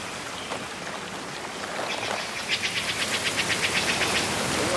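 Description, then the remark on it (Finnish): Heavy rain pours down in a rainforest with very tall trees and dense canopy, in a dense, steady hiss that swells louder partway through, with a rapid rhythmic pulsing in the latter half. No one speaks. “Milloin tämä sade loppuu? Ei kuule mitään.”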